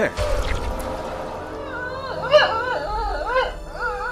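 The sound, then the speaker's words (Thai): A stray dog howls and whimpers in a series of wavering, rising-and-falling cries, after a brief burst of rumbling noise at the start. “พูดจบฤาษีก็ได้ใช้เวทมนต์เปลี่ยนสลามบจายักษ์ให้กลายเป็นสุนัขเร่ร่อนตามเดิม”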